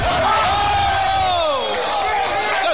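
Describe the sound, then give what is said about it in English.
A packed bar crowd in New York watching Game 7 of an NBA basketball game cheers and yells together in a sustained, loud roar, with overlapping shouts and voices swelling and falling steadily for a few seconds. “At a bar to watch Game 7 of the NBA, but being in the States and in New York, I didn't want to make any new enemies, so it got confusing for which team to cheer for”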